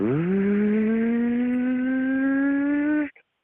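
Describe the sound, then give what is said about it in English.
A man lets out one long, loud scream that mimics a car engine revving, its pitch climbing steadily and never dropping for about three seconds before cutting off abruptly. “he sounded like he was trying to imitate that car sound from Christopher Nolan's Batman”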